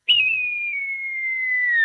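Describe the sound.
A single long whistled cry imitating a falcon or buzzard to drive starlings away, held steady at a high pitch for nearly two seconds and sliding gently downward at the end, loud and alone.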